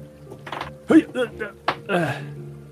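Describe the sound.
A die, rolled for a dexterity check, clatters and tumbles across a hard surface in a few quick clicks, partly masked by voices murmuring over the rattle.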